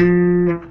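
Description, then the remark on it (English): A single fretted guitar note, played with the finger not close to the fret wire, rings out with a harsh, buzzy, unclean edge, holding steady for about half a second before quickly fading. No one speaks. “See that how dirty this is sounding.”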